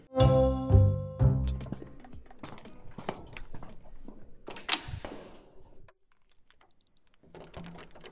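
Two short electronic beeps from a transponder sound, followed by clicks and clatter as the latch releases and the door of a radio studio in the media building at KU Eichstätt university swings open for a group of students on a Monday evening at 7 pm, then quiet.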